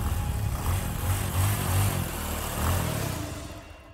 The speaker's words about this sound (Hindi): दो बाइक तेजी से उसकी ओर आने लगी वो सहमी ये वही लड़के थे वो चारों बाइक पर उसके गोल गोल चक्कर काटने लगे